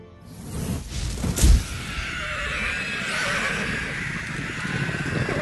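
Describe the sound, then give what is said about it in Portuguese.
A horse gives a loud, shrill whinny near the start, followed by a steady rumble of galloping hooves as the horse is ridden off at speed toward the Shire, continuing to the end, with no talking. “Se cobrem com capas negras e pega cavalo em Rohan e sai correndo pro, na direção do, do condado.”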